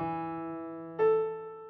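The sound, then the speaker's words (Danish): A musical eleventh interval: a sustained, bright electronic tone holds, then a second note enters about halfway and rings together with it before slowly fading. No talking. “Og her er en 11'er.”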